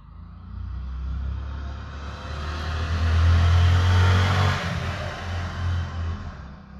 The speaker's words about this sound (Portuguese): Ó a moto, ó a moto aqui, ó. Vai dar pra ouvir a moto?